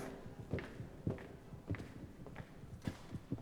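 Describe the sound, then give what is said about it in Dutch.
Steady footsteps of a person taking a short walk at an even pace, each step a soft thud repeating roughly twice per second, with faint background noise and no one talking. “Uh, daarvoor gaan we eventjes een klein wandelingetje maken.”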